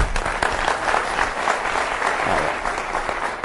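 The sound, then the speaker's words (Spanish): A crowd claps steadily for a few seconds for a person who gave the correct answer, a dense wash of many hands applauding with no voices standing out. “Un aplauso, por favor.”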